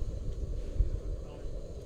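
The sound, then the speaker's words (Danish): Steady low, rumbling wind buffeting a microphone outdoors in windy weather while a fire is being lit, a continuous muffled roar with small gusty surges, moderately loud. “Den kom i blæsevejr.”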